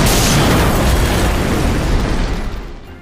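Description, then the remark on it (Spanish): A powerful car bomb explosion, from a mafia terrorist campaign of car bombs in Italian cities starting in 1992, already roaring from the start: a deep, dense rumble with crackling noise that holds for a couple of seconds before fading out. No voices. “La campaña terrorista se basó en poner carros bombas en diferentes ciudades de Italia.”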